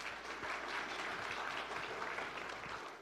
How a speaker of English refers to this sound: You guys can give him a round of applause.